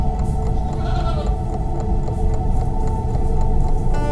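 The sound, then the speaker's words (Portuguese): A black billy goat bleats in one long, wavering, nasal cry as it runs off into the night, carrying through the whole moment, loud, with no talking over it. “Em desalentada carreira para dentro da noite fugiu um bode preto, correndo até sumir já perto do juazeiro.”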